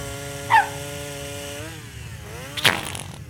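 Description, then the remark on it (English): A chainsaw engine drones steadily, its pitch dipping and revving back up midway, with two brief sharp bursts cutting in over the running motor. “I mean, you don't want another dead human on your claws and chainsaw.”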